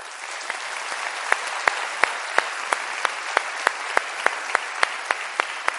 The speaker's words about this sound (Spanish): Es un líder que respetamos, con el que hemos crecido y pues hacemos juntos este proceso y yo pido para él el mejor de los aplausos.